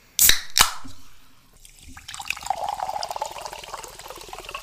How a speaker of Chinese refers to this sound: 让我们去听一听气泡水的声音。